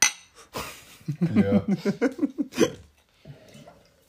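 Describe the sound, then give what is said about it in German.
Glasses clink together in a toast at the start, a bright ringing tap, followed by voices talking and laughing. “Ja, bitte. Natürlich das Mineralwasser Medio. ich trinke ein Weizen.”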